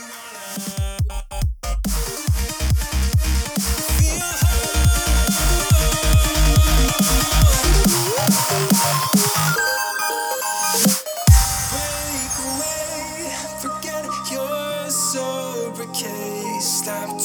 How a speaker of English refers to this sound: Both my intro and outro music are from the song … by … and …, uh, music provided by No Copyright Sound.